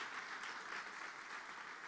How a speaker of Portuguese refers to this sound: Você pode aplaudir bem forte ao Senhor.